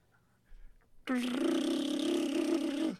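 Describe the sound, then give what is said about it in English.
A voice imitates a sci-fi tricorder with a loud, steady, buzzy drone held for about two seconds, slightly warbling, following a moment of faint murmuring. “it's your turn to give us the tricorder noise.”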